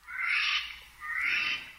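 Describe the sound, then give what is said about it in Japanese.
Two harsh, rasping screeches from a Eurasian jay, each about half a second long with a gap between them. The calls are loud and noisy rather than tuneful, with no voices present. “広く海外に迄音源を求めて収録した鳥の声をご紹介しています”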